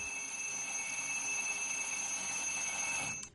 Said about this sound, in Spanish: Esa misma mañana en el dormitorio de Gaby suena el despertador.